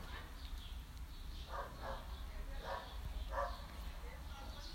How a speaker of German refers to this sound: Alter, in meinem Balkon, also nicht direkt in meinem Balkon, aber von meinem Balkon bellt ein Hund.